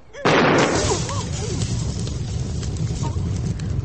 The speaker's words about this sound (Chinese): 这些不是红豆哎，这是我新发明的暗器——霹雳雷珠。 霹什么雳什么雷？ 你不要小看它哟，它爆炸起来啊，威力无穷。